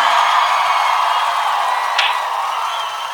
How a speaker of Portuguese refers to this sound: Aplausos.